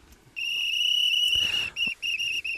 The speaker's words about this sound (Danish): Og så bliver der fløjtet lidt her